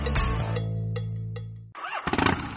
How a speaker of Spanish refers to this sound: No es una motocicleta, cariño, es una chopper.